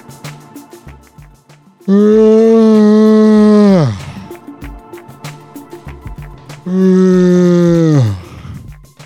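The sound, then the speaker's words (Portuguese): A person puts on two exaggerated, deliberate yawns as a joke, loud, each a long voiced groan that slides down in pitch at the end, with a short quiet gap between them. “Eu tinha feito de brincadeira, agora me deu vontade, porque eu ouvi meu próprio bocejo.”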